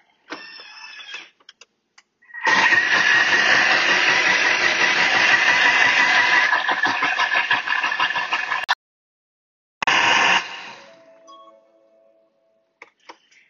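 A kitchen blender roars loudly and steadily for about six seconds, chopping a chili mixture, then gives one short final pulse that whirs down to a stop.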